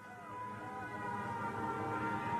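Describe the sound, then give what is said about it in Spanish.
A loud air raid siren announcing an aerial bombardment during a war wails in a sustained, droning tone that slowly swells, with a low rumble underneath and no voices. “En su declaración, Joseph relata las negativas de su madre a meterse en los búnkeres por mucho que aullaran las sirenas que anunciaban bombardeo aéreo, dejándole a él aterrado y al cuidado de los vecinos.”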